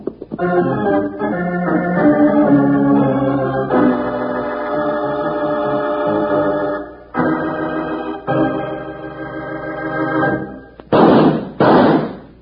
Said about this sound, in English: Hear those two shots, Wranglers? Well, that's to tell you that Kellogg's sugar corn pops are shot with sugar.